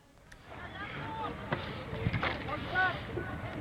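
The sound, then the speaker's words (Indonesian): Steady roaring rumble and wind buffeting from the burning motor ship Mutiara Timur 1 in the Bali Strait as passengers are evacuated, with agitated shouting voices rising over the noise and occasional sharp knocks. “Inilah video yang menggambarkan kebakaran kapal yang dialami kapal Mutiara Timur 1 di Selat Bali.”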